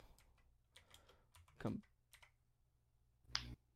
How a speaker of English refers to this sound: Fuck. I'm typing so so competitive Yu-Gi-Oh.